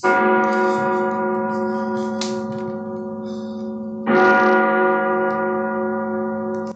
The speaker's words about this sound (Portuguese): Era noite de Halloween e as crianças estavam brincando. quando o relógio marcou meia-noite e os sinos tocaram.